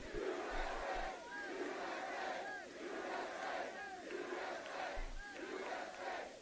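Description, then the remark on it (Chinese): A large crowd at a presidential speech chants "USA" over and over in a steady, rhythmic cadence, the massed voices loud and continuous throughout, with no single speaker rising above them. “民众现在大喊 USA。”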